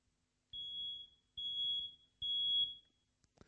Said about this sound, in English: That is an early warning alarm of smoke in your home.